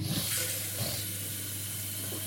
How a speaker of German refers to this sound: oh shit, vergessen, eine Kanne unter den Kaffeeautomaten zu stellen, weil der reinigt sich ja jetzt und dann zeigt er einem erstmal an, dass kein Wasser drin ist und deswegen muss ich euch jetzt mal kurz hier hinstellen und Wasser nachfüllen.